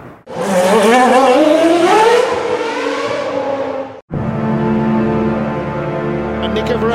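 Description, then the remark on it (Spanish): Loud Porsche race car engines scream, their pitch climbing steadily as they accelerate out of the Ascari chicane, one car slipstreaming the other Porsche in front, then an abrupt cut into a sustained, steady high-revving roar at full speed. “He now gets in the slipstream of the other Porsche in front and gets the job done.”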